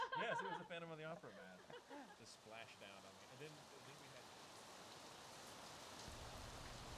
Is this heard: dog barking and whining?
no